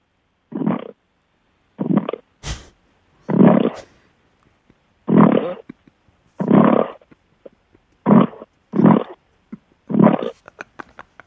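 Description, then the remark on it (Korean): A person on a phone call imitates a hungry pig, making about nine short, throaty grunts at a steady, slightly uneven pace, with one sharp click early on and no talking. “아 돼지가 이제 돼지 소리인지는 알겠는데 그 보통 이게 맥다는 소리를 한다든지 뭐 그래야 이게 좀 돼지 같은데 돼지 어떤 소리입니까 그 소리가?”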